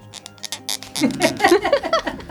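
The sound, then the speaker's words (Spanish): A nail file rasps against nails in quick, rhythmic scratchy strokes, fairly loud, and then a voice starts talking over the continued filing. “Mira, aquí andamos con las limas y yo tengo dos aquí, la mía y la tuya.”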